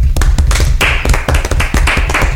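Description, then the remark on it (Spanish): A short burst of applause from a few people, with steady, fairly loud, irregular hand claps overlapping in a quick patter for a couple of seconds. No one speaks. “Yo digo que para terminar este bloque un aplauso para la gente que opta por su salud emocional y mental.”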